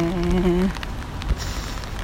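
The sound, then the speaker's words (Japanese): Steady rain falls in Tokyo, pattering on a surface with scattered drips and taps, a soft continuous wash. A brief low tonal hum sounds at the very start before fading out. “今日は東京は雨だし今日はあんまり暑くないですね”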